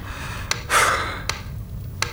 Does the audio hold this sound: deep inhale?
yes